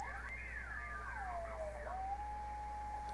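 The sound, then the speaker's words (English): A thin heterodyne whistle on a shortwave radio rig with a ceramic resonator sweeps up and down in pitch on the 17-meter band, wavering as the dial is tuned, then settles into a steady high tone over a constant hiss of static. “Yeah, it's a heterodyne there, but listen, hold on.”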